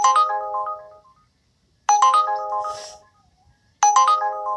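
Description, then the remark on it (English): An Uber ride-hailing app's ride request ping sounds three times at a steady interval, each a bright, ringing electronic chime that decays before the next. It is clear and alone, with no talking. “we are going to be playing the uh, ping request sounds”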